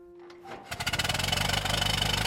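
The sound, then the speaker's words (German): An early, late-19th-century automobile engine starts up and runs with a rapid, steady chugging rhythm, loud and rattly, after a brief low hum at the start. No one speaks. “Steinway, die ist ja bekannt für großartige Klaviere und Konzertflügel und die hat, wusste ich auch nicht, Ende des 19. Jahrhunderts in Amerika auch Motoren und Autos gebaut.”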